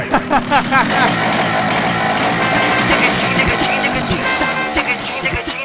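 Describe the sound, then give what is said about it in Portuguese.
Someone loudly imitates a noisy revving motorcycle with their voice, a buzzing engine drone with quick rising swoops at the start, then sustained roaring for several seconds. “com aquelas motos barulhentas pra cacete, velho.”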